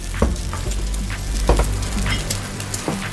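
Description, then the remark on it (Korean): Fresh seafood and pork belly (samgyeopsal) sizzle steadily on a rooftop grill where guests grill it themselves, a continuous crackling hiss with sharp pops and spits breaking through every second or so. No one speaks. “신선한 해산물과 삼겹살 올려드릴게요. 자유롭게 구워 드시면 됩니다.”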